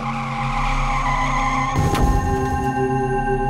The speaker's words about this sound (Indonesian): Lalu, bus tiba-tiba berhenti karena sepertinya menabrak seorang pengendara ojek.